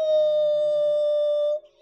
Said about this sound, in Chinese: 这会儿老三刚好想说话呢，教堂的警报声儿就突然响起来了，当当当当！